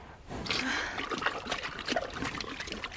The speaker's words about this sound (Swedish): Hon skrittar mot vattenlinjen. Hästen tar ett steg ut i vattnet gräver med framhoven.